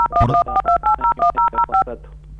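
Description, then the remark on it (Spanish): A quick run of about nine phone keypad beeps, each a short dual-tone press in an uneven rhythm, loud over a faint background hum and muffled noise, made by a caller's cheek touching the phone keypad during a call. “se ve que con, el cachete me parece que estás tocando el, teclado y no te escuchamos bien.”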